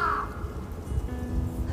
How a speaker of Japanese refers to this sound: カラスさんもそうだと言ってくれている